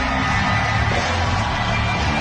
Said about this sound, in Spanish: Esto es histórico. El campeón de una empresa de Raw recibe el aplauso.